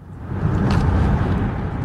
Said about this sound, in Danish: Landsformand i Dansk Folkepartis Ungdom, og altså med fra en bil, hvis, der, øh, hvis man undrer sig over, hvorfor der var lidt ekstra lyd på linjen.